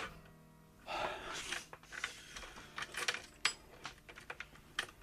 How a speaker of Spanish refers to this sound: El cerrojo poco a poco iba dando vuelta. Alguien había introducido una llave.